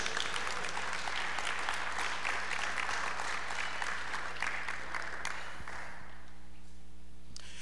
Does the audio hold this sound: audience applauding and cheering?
yes